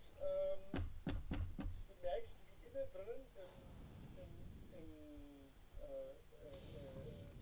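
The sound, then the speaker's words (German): Four quick, sharp knocks on a door in a fast rhythm, fairly loud, followed by people talking. “Ähm, also du klopfst an die Tür. Hm, klopf, klopf, klopf.”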